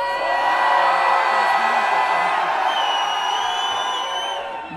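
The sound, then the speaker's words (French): An audience shouting and cheering on a countdown in a test where the loudest shouting wins: a large crowd shouting and cheering loudly and continuously, a dense wall of overlapping voices and whoops that holds steady for several seconds before easing slightly at the end. “Et là, on calcule, on calcule, et celui qui a eu le plus de cris, le plus de bruit, etc., il a gagné.”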